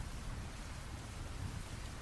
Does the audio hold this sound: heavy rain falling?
yes